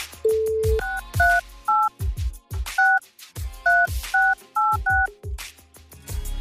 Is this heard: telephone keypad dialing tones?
yes